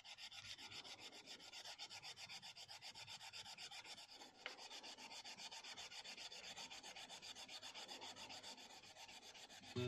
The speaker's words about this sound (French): passer donc déjà la laine d'acier sur la touche de la guitare et sur les frettes